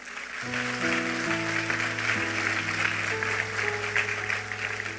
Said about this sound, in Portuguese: Pode ter certeza, aplauda ele.